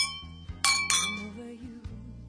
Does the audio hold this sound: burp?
no